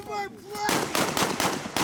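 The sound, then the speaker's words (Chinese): During military recruit training, a rising whistle-like tone gives way to a dense, continuous burst of gunfire, loud rapid cracks and bangs packed together with booming explosions underneath, with no voices heard. “新兵们的训练就是一次充斥着枪声、爆炸声和叫骂声的震撼教育。”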